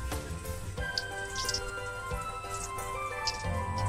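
Four pieces of food, soaked in water first, fry in hot oil in a lidded pot: a steady, dense crackling hiss dotted with sharp little pops, holding an even, moderate loudness over a faint steady hum, with no voices.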